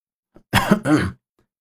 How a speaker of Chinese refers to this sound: 老葛摸了一下鼻子，清了清嗓子，说。